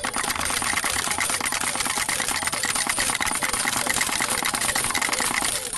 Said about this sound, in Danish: Og skulle nogen være i tvivl om, hvad den lyd symboliserer, så er det alle de 1491 dejlige kroner, der lige nu rasler ned på bordet. Ja, dampende ja. varme mønter.